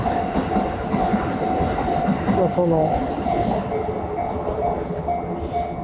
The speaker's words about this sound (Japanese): ちょっと電車だからうるさいですよね。